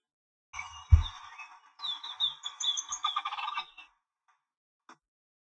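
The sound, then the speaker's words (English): A green, copper and white ocellated turkey calls, not gobbling, with a rapid run of metallic, bubbling notes that speed up into a warbling burst, loud, ending with a single faint note after a pause. “uh you can go hunt this World Slam, and the only rarity on the World Slam now, that ocellated bird, he is green and copper and white. He don't gobble. This is what he does.”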